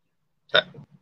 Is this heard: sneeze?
yes